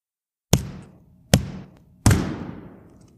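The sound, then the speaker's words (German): A judge's gavel bangs on his table three times as a guilty verdict is given, each sharp, loud wooden knock ringing out briefly, the last blow slightly heavier and longer, with no voices. “Dreimal schlug er den Hammer auf seinen Tisch.”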